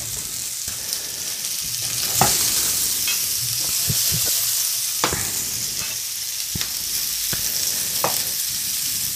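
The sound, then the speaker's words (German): Mettenden sausages sizzle steadily as they are browned in a hot pan, a dense crackling hiss with scattered sharper pops and spits throughout, fairly loud, with no one talking. “Das mit den Anbraten der Mettenden, das habe ich noch nie so gemacht, aber das gefällt mir sehr gut.”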